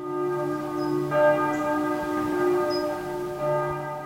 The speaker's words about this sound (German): dieses Geräusch jeden Schultag als Kind. Es bedeutet, mein Schultag beginnen habe. Es ist interessant, ich die Klingel in Basel noch wieder hören. Nicht von der Schule, sondern von der Kircheglocke.